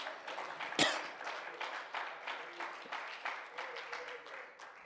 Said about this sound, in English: If you believe that tonight, clap your hands and praise Him.